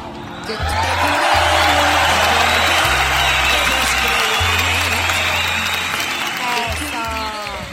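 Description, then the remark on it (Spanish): Loud, steady audience applause mixed with crowd cheering and a few whistles, lasting the whole stretch, while low sustained bass notes drone underneath. “Eh, eh, el que no tenemos los suficientes aplausos, fuerte al aplauso público conocedor.”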